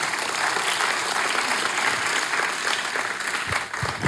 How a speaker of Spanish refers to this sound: Un aplauso al Rey de Reyes.